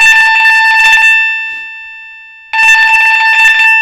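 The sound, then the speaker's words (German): A doorbell chime mimicking a telephone ring: two loud, buzzy bursts of rapid bell-like trilling about a second each, separated by a fading tonal hum and a brief pause. “Ein typisches Telefonklingeln nachgeahmt.”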